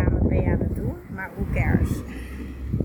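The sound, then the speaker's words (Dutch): Gusty wind buffets the microphone outdoors on a beach in Aruba, a steady low rumble running under a person talking throughout. “Sorry als je af en toe wat wind tussendoor hoort, maar ik moet deze gewoon opnemen op het strand op Aruba.”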